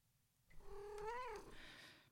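A cat lets out a single drawn-out meow, fairly clear, its pitch rising slightly before trailing off, with no one talking.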